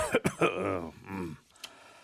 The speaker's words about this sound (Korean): 아이들까지 밖으로 내보내신 아버지께서는 한참 동안 무서운 얼굴로 자식들을 둘러보시더니 평소보다 유난히 헛기침을 많이 하시면서 말문을 여셨습니다.